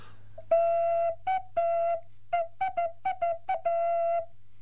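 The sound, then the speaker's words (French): A clay whistle from the small village of La Borne, made by Claude Gaget, blown in a series of steady, hollow tones, some long and some short quick bursts, fairly loud with a faint low hum beneath and no talking. “le, sifflet le plus récent, euh, ben, je vais prendre celui-là, qui est encore un sifflet donc, du petit village”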